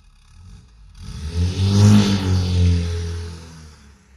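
A sports car engine sound effect: the engine roars to life and revs hard, its deep growl climbing then easing as it pulls away, with no talking over it.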